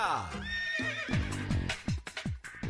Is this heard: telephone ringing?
no